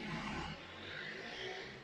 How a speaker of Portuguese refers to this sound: Deixem só passar aqui esta moto.